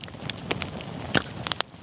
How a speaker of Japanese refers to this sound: あなたもこんな音で癒されてみませんかステーキを焼く音川のせせらぎ焚き火の音